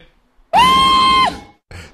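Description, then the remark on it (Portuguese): A single loud, high-pitched scream held steady for under a second, followed by a brief, quieter vocal burst after a short pause. “Grito!”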